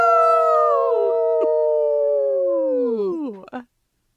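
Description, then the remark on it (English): Human voices mimic a wolf howl together in one long, loud, sustained wail that slowly slides downward and breaks off abruptly after about three and a half seconds. “Uh I hardly feel qualified to howl along with you, but you will be adding an incredible amount of howl cred to us.”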